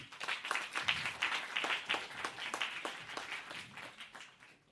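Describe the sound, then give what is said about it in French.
An audience applauds Roxana Family in an afternoon session with dense, crackling handclaps that swell early, hold steady for a few seconds, then gradually thin and fade out, with no voices over them. “Je vous propose d'applaudir Roxana Family.”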